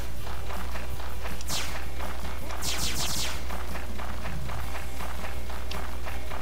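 Rapid, evenly paced footsteps of a video game character running, steady throughout, with a couple of brief whooshing sweeps in the middle over a low constant hum.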